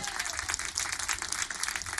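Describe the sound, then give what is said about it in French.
Steady audience applause for a singer as he joins a band, a dense wash of many hands clapping at an even, sustained level for the full two seconds with no voices standing out. “Applaudissements aussi pour … qui rejoint …”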